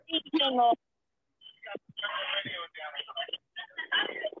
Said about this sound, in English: you got to turn your radio down a little bit,